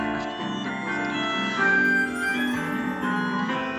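Jazz ensemble music from a film score plays steadily and fairly loud, with sustained melodic lines over a full, layered accompaniment and no voices.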